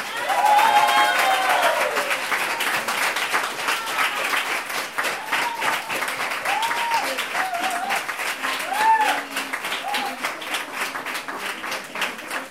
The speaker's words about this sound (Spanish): Para mí sois mis histéricas históricas eh, para siempre y este aplauso es para todas esas personas. Gracias.